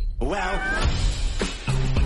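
Cats meow in a scene from the film Puss in Boots (El Gato con Botas), a drawn-out, wavering meow followed by a couple of shorter calls, with a low background murmur beneath them.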